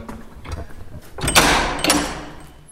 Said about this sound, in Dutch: En eh, nou ja, we kunnen wel eventjes, als we nou even doorlopen, dan, dan maak, we, maak ik dat deurtje even open.